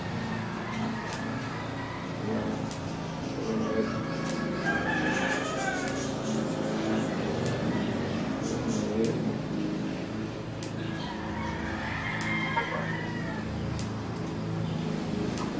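Roosters crow and hens cluck in a busy yard, several calls overlapping over a constant murmur of background noise, with no one speaking.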